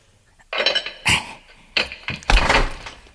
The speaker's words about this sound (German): Der hat den lauten Türriegel gehört.